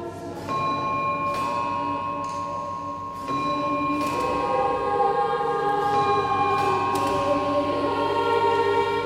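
Large bells at Wells Cathedral ring out in a steady, irregular peal, each strike blooming into a long, shimmering hum that overlaps the next, with no voices.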